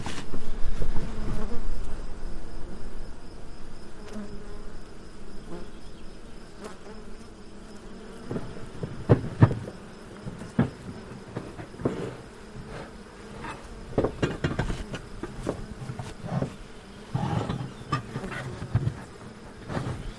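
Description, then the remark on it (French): A steady, dense drone of many honeybees buzzing at an opened hive, with smoke from green pellets used to calm them, with scattered sharper clicks and knocks rising over the continuous hum; no one speaks. “La fumée va les calmer, ça va les occuper, ça va les obliger à ventiler. Pendant ce temps-là, on peut travailler sur la ruche.”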